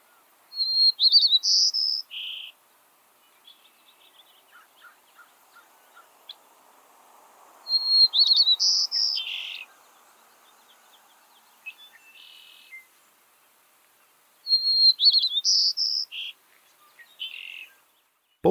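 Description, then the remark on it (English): A white-crowned sparrow in California, US, sings three repeated songs in its regional dialect at roughly seven-second intervals, each opening with clear whistled notes followed by buzzy trills, loud over a faint insect background. “And here's one in California, in the US.”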